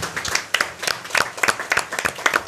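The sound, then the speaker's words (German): An audience applauds steadily, many hands clapping in a dense, continuous patter with sharper individual claps popping out, moderately loud, with no talking over it. “Und nochmal einen großen Applaus auch für den, den lieben Menschen, den ich jetzt leider nicht sehe”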